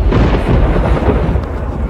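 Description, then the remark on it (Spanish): A deep, sustained rumble of thunder rolls steadily for a couple of seconds, loud and heavy in the low end with no voices present. “La multitud que estaba allí oyó la voz y decía que había sido un trueno.”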